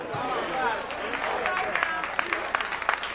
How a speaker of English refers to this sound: Oh, listen to these old whack hand claps. Oh, they sound terrible.